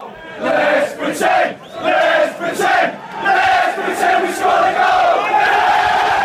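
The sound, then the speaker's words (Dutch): A large stadium crowd of football fans sings a classic chant in unison at a match where Tottenham trailed Liverpool 4-0, loud and sustained with a rolling melodic rhythm, many voices blending into one dense roar. “Eh, luister even goed naar deze klassieker, die vaak wordt eh, gezongen op het moment dat je zelf heel ver achter, achter staat.”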